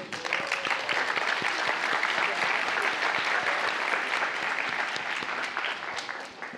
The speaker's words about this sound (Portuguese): Hoje é o dia dos pais. Então, você está do lado de um pai, dê uma salva de palmas para ele.